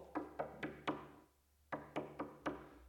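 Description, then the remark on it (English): Two sets of four sharp knocks rap on a door as women knock where the disciples are gathered, each set quick and evenly spaced, separated by a short pause. The knocks are fairly loud, with no voices. “and they knock where the disciples are hanging out, wondering why is this story ending so badly?”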